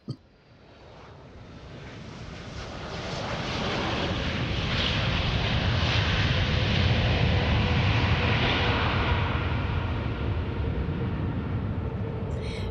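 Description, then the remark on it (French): A steady, broad roar builds over the first few seconds and then holds loud and constant, like an airplane engine droning during a flight to Paris, with no voices present. “Mais enfin, j'étais sur l'avion pour partir à Paris.”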